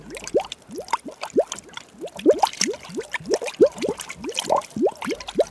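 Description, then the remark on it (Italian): Water sloshes and splashes inside a bottle as a small girl who fell into it swims frantically to stay afloat. Repeated quick rising gurgles and a steady rhythmic churning like paddling in the liquid, moderately loud, with no voices. “Ci sono cascata dentro ed eccola là che nuotava affannosamente per tenersi a galla.”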